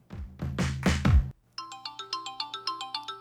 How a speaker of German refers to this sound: Meine Oma, die schreibt mir nämlich. Ja, Handy aus, Mensch, ne? Also eigentlich in der Sendung hier. Ja, da guckst du, ne? Meine Oma hat mir nämlich geschrieben, wir sind nämlich im SMS-Kontakt.